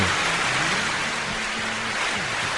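Loud, dense applause fills the whole stretch, a steady hiss-like wash of many hands clapping with no pauses, and a faint low hum underneath. Nobody speaks.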